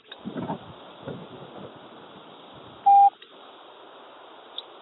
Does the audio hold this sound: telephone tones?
yes